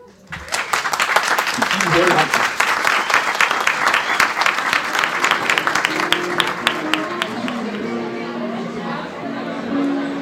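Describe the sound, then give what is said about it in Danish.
Sustained applause from an audience at the presentation of Alinea's 2017 teaching materials award to Kontekst Plus, at the publisher's autumn reception; dense clapping throughout, with voices chattering underneath that grow more noticeable as the clapping thins toward the end. “Og øh, det vi lige hørte her, det var øh, årets læremiddelspris fra Alinia, der blev uddelt”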